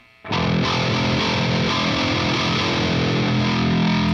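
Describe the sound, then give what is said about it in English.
A heavily distorted bass guitar plays its low E, starting abruptly after a brief silence and sustaining loudly for about four seconds with a thick, buzzing, gritty tone. No one speaks. “It's like it's uh there's something just primal about a super distorted, really low note.”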